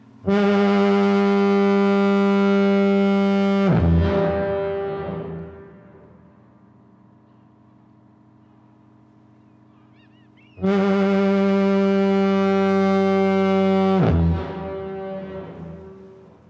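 Two long, deep blasts of the foghorn at Lindesnes lighthouse in Norway, each lasting several seconds with a rich harmonic drone, separated by a quiet gap where the echo fades away; loud, no voices.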